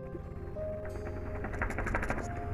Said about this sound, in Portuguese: Tudo que se passa aqui. Dos pássaros, dos carros e motos que passam aqui embaixo na estrada.